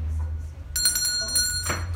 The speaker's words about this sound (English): Okay, can I ring the bell? Do you need a bit more time?